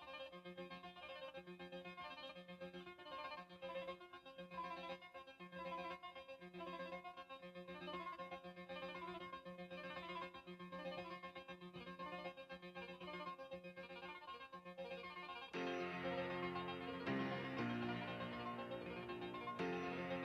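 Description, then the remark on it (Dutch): A bright, repetitive synthesizer keyboard pattern cycles steadily, with no voices, in a rock song's intro of about a minute. Near the end, fuller, louder instruments join in as the intro builds. “nee, eh, uw telefoon liep niet vast. Dit was echt het nummer.”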